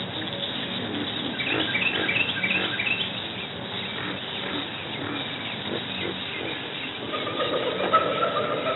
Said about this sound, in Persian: صدای حیوانات